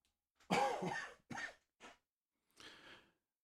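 A fairly loud coughing fit: one long rasping cough, then two short hacks and a final wheezy, breathy cough. No one speaks.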